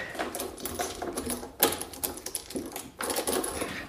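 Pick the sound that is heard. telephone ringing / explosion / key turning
key turning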